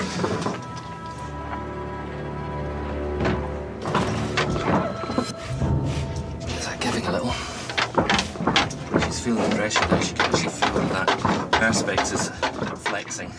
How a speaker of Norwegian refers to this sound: Ute på isen fortsetter isbjørnen å angripe buret som BBC-fotografen sitter i.